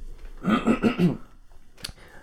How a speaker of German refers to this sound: Mann, ich muss schon wieder husten. Entschuldigung.